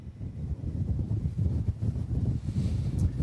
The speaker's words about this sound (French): le vent continue de souffler euh, très fort ce matin à cause de cette euh, tempête euh, aurore ici à Vimreux. des rafales frôlant les 100 km heure.